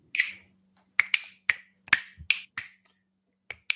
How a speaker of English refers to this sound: Oh, Clicky. Oh, Clicky the clicking guy. Clicky McGrew.